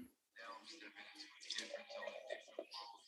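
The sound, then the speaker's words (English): A drink is poured in one steady, splashy stream lasting about three seconds, with a bubbling, gurgling texture and a faint voice in the background. “All right, let's get the pour.”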